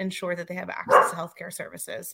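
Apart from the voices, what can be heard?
dog barking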